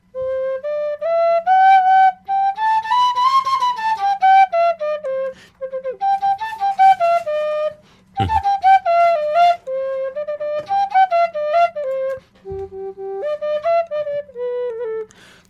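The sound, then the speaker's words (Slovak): A folk pipe plays alone, fairly loud, running stepwise up and down through a Lydian scale starting from the third hole, in several breathy, sustained phrases separated by short pauses. “A lidika, keď začne z tretej diery, uh-huh”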